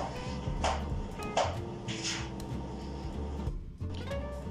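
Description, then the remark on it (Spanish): A female cat scratching at something, heard as a few short rasping bursts of scraping, the longest near the middle, over a steady low background hum with no one talking. “Bueno, pausé esto un poco, yo creo que alcanzaron a escuchar cuando la gata estaba rajuñando.”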